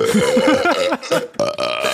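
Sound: burp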